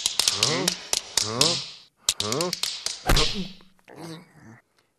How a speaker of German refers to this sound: Das ist ein Schneemann. Äh, was? Ein Schneemann? und wieso klackert der so komisch? Der Schneemann, der schmilzt nämlich und das Wasser klatscht auf den Boden. Klack, klack, klack, klack, klack, klack, klack.